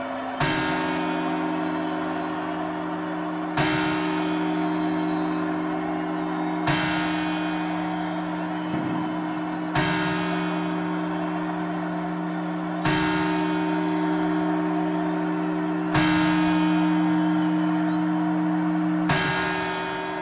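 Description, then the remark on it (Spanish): A large clock bell strikes the New Year's Eve chimes about seven times at a slow, even pace, roughly three seconds apart, each loud chime ringing into a sustained, resonant hum before the next. No voices are heard. “Y ahora las campanadas.”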